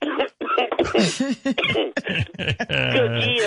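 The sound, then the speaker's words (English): A loud fit of coughing after a hit of marijuana: a run of harsh, broken coughs and wheezy, voiced gasps in quick succession, trailing into a drawn-out, strained vocal sound at the end. “when do you stop coughing?”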